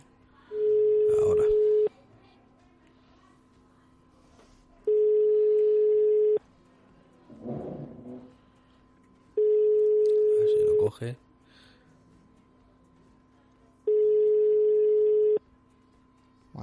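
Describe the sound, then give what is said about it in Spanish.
An outgoing call's ringback tone for a call that goes unanswered: four long, steady single-pitch beeps at even intervals, loud and clear, with faint murmurs and a brief rustle in the quiet gaps between rings. “Bueno, vamos a intentar esa primera llamada a ver si tenemos suerte.”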